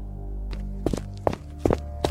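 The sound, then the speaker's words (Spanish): Footsteps approaching a cabin, about five or six muffled thuds at a steady walking pace, growing a little louder over a low, constant background hum. “Mientras reflexionaba sobre todo lo que había pasado, escuché pasos acercándose a la cabaña.”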